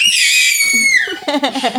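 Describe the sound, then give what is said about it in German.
A loud, high-pitched scream held steadily for about a second, sliding downward, followed by a shorter wavering vocal outburst; it sounds more like an uninhibited yell than a panicked cry. “Es ist gar nicht jetzt so ein panisch, sondern einfach nur mal so ein Schreien.”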